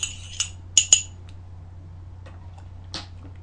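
food or drink, taking a sip

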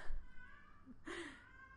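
animal, domestic cat meowing

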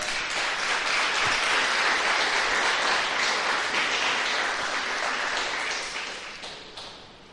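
crowd, audience applauding

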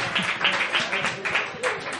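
crowd, audience applause

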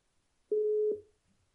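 signal or alarm, telephone line ringing tone

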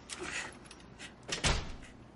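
household object, door closing

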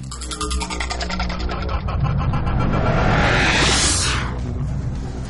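vehicle, car driving

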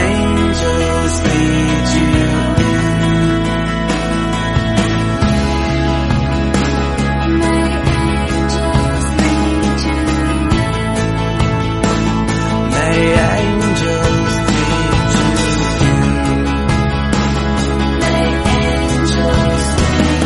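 signal or alarm, outro music

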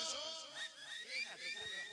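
human body sound, person attempting to whistle

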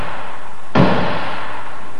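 impact, knocking on a door

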